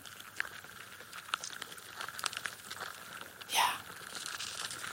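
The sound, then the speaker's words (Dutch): A dense, continuous crackling and rustling of hundreds of ants, more than 700, gnawing and moving around a person in a sleeping bag, with fine clicks and crinkles and a brief louder scratchy burst partway through. No voices. “Dit zijn mieren. Ja, één mier maakt natuurlijk geen geluid.”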